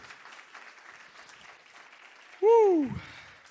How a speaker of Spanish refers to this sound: Vamos, denle un aplauso al Señor si usted lo cree.